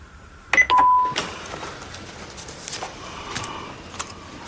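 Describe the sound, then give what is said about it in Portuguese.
An answering machine beep after a Portuguese greeting asking callers to leave their name and phone number: a brief higher blip followed by a single loud, steady electronic tone lasting under half a second. Afterward only a faint background hiss with a few soft clicks remains, with no talking. “Se souber de alguma informação sobre o seu paradeiro, por favor, deixe o seu nome e número de telefone depois do BIP, que nós depois contactamos.”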